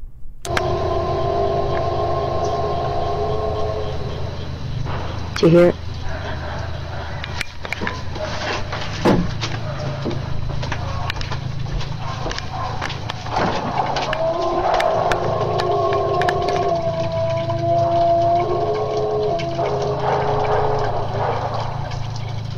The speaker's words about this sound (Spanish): Esto es lo que se cree que es uno de los sonidos que produce el Sasquatch. Les voy a poner para que vean cómo cómo hablas Sasquatch.